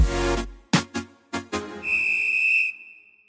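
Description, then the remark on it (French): A burst of noise and several sharp, quick thuds lead into one long, shrill referee's whistle blast held steady for about a second before it cuts off, with no voices. “Place à la feuille de match match, place au coup d'envoi.”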